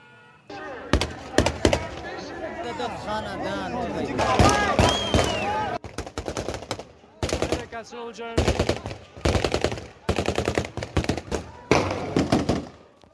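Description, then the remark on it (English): Loud bursts of rapid gunfire from the Taliban opening fire on crowds crack out again and again, some in quick automatic strings, while the crowd shouts and screams in panic, especially during the first half. “That is open fire on crowds that aren't doing what they want them to do.”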